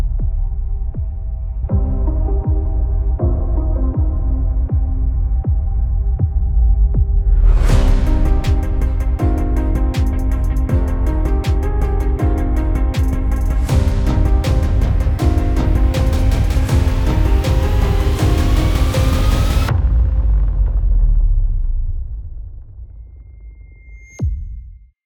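An instrumental intro theme tune: low, throbbing sustained tones build, then a bright, dense layer with rapid percussive hits bursts in, playing loudly before fading out, followed by a brief high tone.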